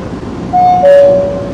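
Steady low rumble of a metro train in motion, heard from inside, with a clear two-note descending chime ringing out over the noise midway through.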